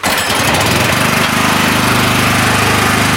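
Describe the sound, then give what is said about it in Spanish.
A gasoline generator, used during a power outage after Hurricane María, runs loudly and steadily, its engine giving a constant droning hum with a harsh mechanical rattle and no change in pace throughout. “A diferencia de Miriam, María y Manolo cuentan con un generador.”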